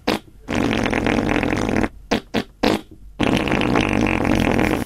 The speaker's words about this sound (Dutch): Bewerkstelligd door het tussentijds even openen en weer sluiten van de kontlippen op de cadans van de adem. Zodanig dat er van één goed gedisponeerde scheet met gemak 12, 20 of zelfs meer zijn te maken. Luister even mee.